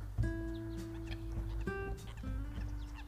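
Several nasal, honking calls of mother ducks at a pond ring out one after another over about three seconds, with a steady low rumble of wind or handling noise underneath.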